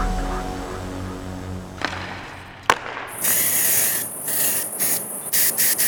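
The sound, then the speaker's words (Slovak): Crickets chirping behind someone on a terrace: a bright, hissy high-pitched trill starts about halfway through and pulses on and off in uneven bursts. It follows a low hum and a couple of sharp clicks. No one speaks. “Tak toto znie, keď niekto nahráva podcast na terase. Ty kokos, čistá dovolenka. Svrčky vzadu.”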